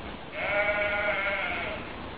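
A single sheep bleats once, a drawn-out, wavering baa lasting over a second, clear against a faint background hiss, with no talking.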